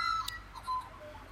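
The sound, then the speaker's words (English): Faint, high bird chirps and short whistled notes come in scattered bursts over a soft outdoor hush in a garden, a few separate calls overlapping briefly with no voices present. “I love these birds.”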